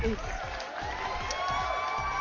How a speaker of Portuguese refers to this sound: É... de novo, palmas.